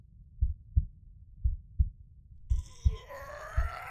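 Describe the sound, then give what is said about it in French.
A slow, steady heartbeat thumps in deep lub-dub pairs about once a second, the heartbeat of an unconscious man lying at the bottom of a crevasse; halfway through, a higher, wavering tone swells in over the continuing beats. “Il est inconscient, oui, mais son cœur n'a pas cessé de battre.”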